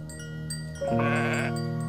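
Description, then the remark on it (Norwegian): A single lone sheep bleats around a mountain summer farm, a wavering, nasal cry that swells partway through and holds steady to the end, with a faint background hum. “Stille går et ensomt får kring seteren på fjellet.”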